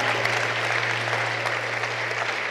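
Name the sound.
audience clapping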